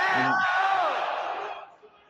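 A big stadium crowd, in stands decked out in red and black, roars and shouts in celebration after Leão's first goal, loud and dense, with individual voices whooping above the din before the cheering fades away.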